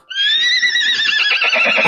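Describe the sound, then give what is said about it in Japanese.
A carriage horse lets out a loud, high whinny that wavers and trembles, sliding gradually downward in pitch before breaking into a rough, fluttering neigh. No one speaks over it. “馬車の修理が整いました。”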